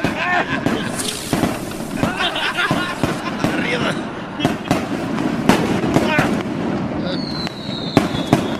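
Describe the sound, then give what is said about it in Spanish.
Rapid, irregular gunshots crack, one sharp report after another, over a noisy crowd murmuring and calling out in the background. “Están tirando balazos a ti, güey. Agáchate.”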